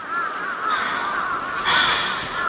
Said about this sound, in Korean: 빌어먹을 천놈의 까마귀. 남편이 녀석들을 쳐다보며 말했다. 시커먼 무리가 날개를 펄럭대며 지나갔다. 아침과 해질 무렵에 노상 겪는 일이었다.